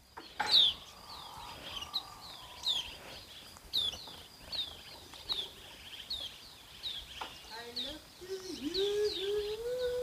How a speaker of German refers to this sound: Also, dann höre jetzt noch ein letztes Mal auf diese schöne Geräuschkulisse, auf diese wundervollen Vögel, die hier so zwitschern.